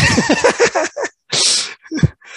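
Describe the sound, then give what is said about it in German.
A played-back recording of a sneeze: a breathy vocal build-up, then a sharp, hissing burst, followed by a few short trailing sounds. It is fairly loud. “so, dein Niesen spiele ich wieder ein,”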